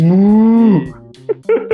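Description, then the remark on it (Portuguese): A single loud cow moo, a long low drawn-out call that bends down at the end, followed by a few short faint grunting sounds. “eu sou da época que entrava no portal do universo das vacas do Diablo 1, mano.”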